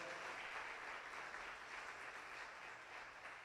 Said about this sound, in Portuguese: Vamos aplaudir mais uma vez ao Senhor.